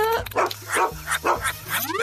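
A dog named Bruno barks several times in quick, uneven bursts right into the microphone of an Animal Talk translator from Pleppo Toy, loud and a little strained, with a low steady hum running underneath.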